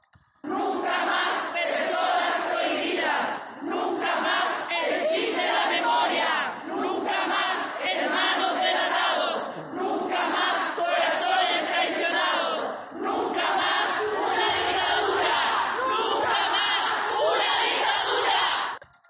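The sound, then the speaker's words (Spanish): A large crowd of women dressed in black and holding candles chants the protest slogan "Nunca más la democracia bombardeada" in unison, loud, the phrases repeating in steady rhythmic waves with brief pauses between them for nearly twenty seconds. “pues toda esta jornada fue la de las mujeres que se reunieron bajo el lema Nunca más la democracia bombardeada, vestidas de negro, con una vela en las manos.”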